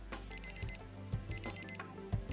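A standard digital alarm clock ringtone, the 'Regular alarm sound' option of an alarm app: two bursts of four rapid, bright high-pitched beeps, separated by a short pause, over a low electronic backing, with no speech.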